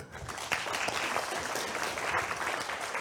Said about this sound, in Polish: Okej, okay, dzięki. Wielkie brawa.